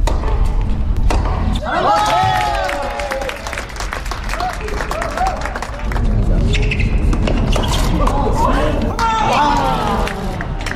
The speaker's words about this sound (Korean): 지금 장수정 선수의 경기를 보는 관중들은 플레이 하나하나의 환호와 탄식을 표현하고 있는데요.